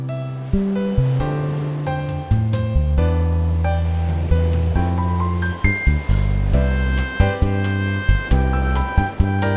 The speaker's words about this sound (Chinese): 好，然后呢，同时呢，我们顺便打完鼓以后，我们让这个前奏开开始以后，我们就连音乐一起进来，然后我们也让海浪进来，跟我们一起感觉看看这个整个颜色的长相。